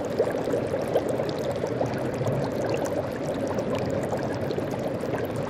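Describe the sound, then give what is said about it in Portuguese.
Continuous bubbling, gurgling water in an alchemist's potion-mixing setup fills the scene at a steady, moderate level, a dense liquid texture with no pauses and no voices. “Daí tinha as poçõezinhas misturando, mesa de é, som de é, água borbulhando, umas frescuras assim, né?”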